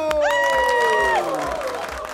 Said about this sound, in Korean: 이야, 역시 박수가 대단합니다.